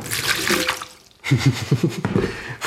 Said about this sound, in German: Ich fülle das nun in den Eimer